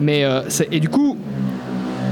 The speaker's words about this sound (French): je fais une pause parce qu'il y avait une moto qui passait euh, devant chez moi. Ah bon euh, Ouais, vous l'avez pas entendu, ah.